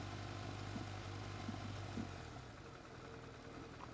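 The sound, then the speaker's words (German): A tractor driving on the left runs in a steady, low rumbling drone, then eases to a quieter, rougher idle partway through. No one speaks. “Weil Eigentlich hätte ich rechts fahren müssen, aber dieser Traktor fährt halt einfach links.”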